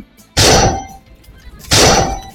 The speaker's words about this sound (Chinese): 冰锥连续射来，迪迦护住千岁，勉强躲过攻击。